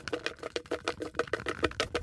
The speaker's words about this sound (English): I'm going to shake the bucket. You tell me when to stop, and I'll pull a, a great piece of paper out.